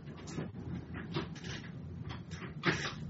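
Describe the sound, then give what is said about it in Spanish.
An office chair's height mechanism shifts as the chair lowers itself automatically, with a series of soft mechanical creaks, clicks and brief hissy rustles over about three seconds, ending in a slightly louder clunk. “Me baja la silla esta automáticamente.”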